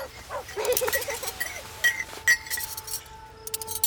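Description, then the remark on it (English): Picnic crockery and glassware being packed up outdoors, with a few sharp clinks and soft rattles scattered over a few seconds against quiet background noise. “We were just packing up the picnic things when.”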